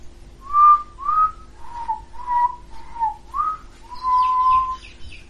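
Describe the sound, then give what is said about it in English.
A soft, humming whistle drifts through the trees of a forested area in a series of short, wavering notes, one after another, with a longer held note and some faint higher chirps near the end. “humming sort of whistle periodically coming through the trees.”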